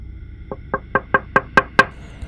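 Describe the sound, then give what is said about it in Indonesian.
Seven quick, sharp knocks on a window in a steady rhythm, growing louder with each blow, with nothing else around them: the window being banged and pounded while people were asleep. “Suaranya itu kayak jendela di kayak digeprak digedor-gedor”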